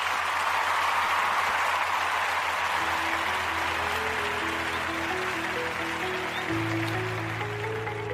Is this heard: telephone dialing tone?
no